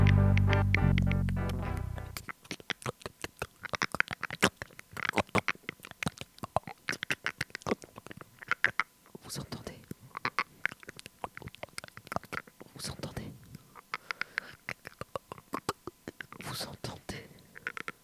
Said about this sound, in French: Vous entendez C'est le casse-croûte. C'est le casse-croûte. Je casse la croûte.